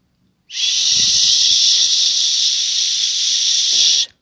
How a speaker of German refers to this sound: Ein wenig Widerstand geben mit Resistance, mit diesem Terraband. Dann atmet ihr in diesen Widerstand hinein, auf dieser Höhe. Und atmet auf ein SCH wieder aus.